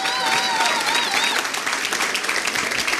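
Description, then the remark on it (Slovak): A church audience applauds the Bishop of Western Europe with dense, steady clapping that stays loud and continuous throughout, with a wavering high cheer or whistle rising over it at the start. “Let's, let's uh, give the Lord a hand for the Bishop of Western Europe.”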